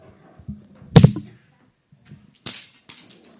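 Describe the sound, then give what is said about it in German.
A wooden staff snaps with a loud, sharp crack, followed about a second and a half later by a second, lighter crack and a few faint splintering ticks. No one speaks. “Jesus wird geboren und sagt, ich zerbreche diesen Stab.”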